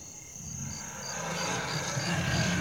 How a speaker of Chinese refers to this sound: 远方传来年兽嘶吼的声音。